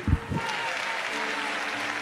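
An audience applauds in praise of God, the King of Kings, with dense, steady clapping that holds at an even level throughout, opening with a couple of brief low thumps.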